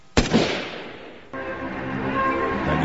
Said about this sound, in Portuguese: recebe o tiro que lhe atinge em cheio o lado esquerdo do peito.